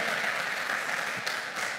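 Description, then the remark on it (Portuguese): An audience applauding God at an evening service, a dense, steady wash of many hands clapping at once, sustained at an even, fairly loud level with no voices standing out. “Você pode aplaudir a Ele por isso nessa noite.”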